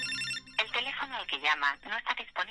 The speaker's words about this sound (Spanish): Llaman a Daniel de Jong pero nadie coge el teléfono